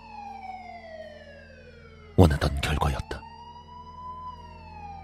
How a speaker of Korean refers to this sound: 버튼을 누르자 영상에서 경찰의 사이렌 소리가 들려왔다.